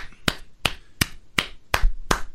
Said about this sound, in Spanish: ¿Por qué estás aplaudiendo eso, güey? Bravo, señora, ya. No por lo que hizo, pero por cumplir su amenaza.